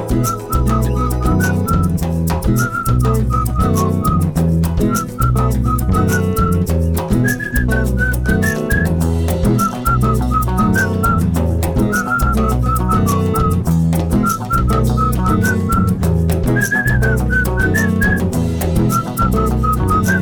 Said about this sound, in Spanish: escuchas esto de día, te aprendes la melodía que hace un rato empecé a silbar.